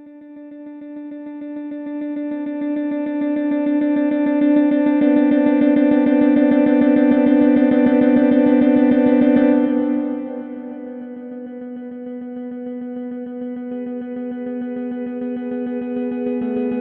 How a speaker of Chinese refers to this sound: 我们呢，先来听一段原始记录下的，没有经过太多艺术修正加工的这个 Quantum Music Project 的一个结果。